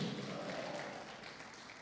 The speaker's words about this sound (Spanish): Dele palmas fuerte al Rey de la Gloria, hermano. A su nombre.